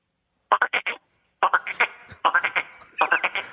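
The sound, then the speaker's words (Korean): A frog croaks in four quick bursts, each a rapid run of four or five raspy, mid-pitched pulses, with short pauses between the bursts. “앵콜 개구리 들으면서 마치겠습니다.”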